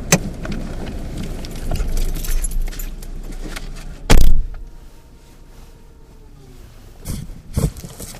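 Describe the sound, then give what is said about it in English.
Over a rumbling car-interior hum, a single sharp, loud clunk sounds as a car trunk pops open, then it quiets to a low drone with a couple of softer knocks near the end. “Okay, so pop the truck, please, and yeah.”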